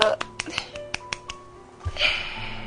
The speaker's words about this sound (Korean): 박수!